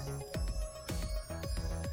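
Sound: chair squeaking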